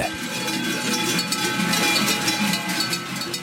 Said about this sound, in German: Lärm machen, um den Winter zu vertreiben, das sind Glocken und Stimmen aus Zwoz im Engadin.